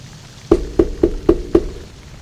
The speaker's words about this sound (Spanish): En la noche, de nuevo a las 10 de la noche, la niña toca la puerta.